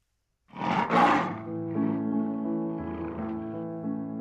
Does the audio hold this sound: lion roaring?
yes